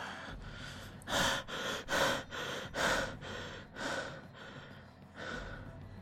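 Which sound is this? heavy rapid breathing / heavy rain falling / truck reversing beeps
heavy rapid breathing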